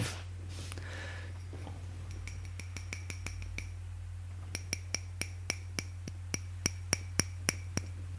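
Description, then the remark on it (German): Someone taps a plastic dish in a quick, steady series of light clicks, about two dozen sharp ticks with a slight ringing overtone, over a low steady hum with no talking. “Sag du mir mal bitte, aus welchem Material diese Schäden gemacht ist.”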